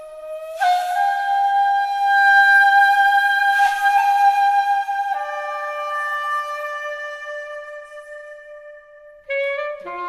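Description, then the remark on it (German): A saxophone, found among a collection of flutes in an office, plays a few long, steady held notes, each sustained for several seconds before shifting to a new pitch, with a short final note at the end. No voices. “Unter all den Flöten war ein Saxophon dabei.”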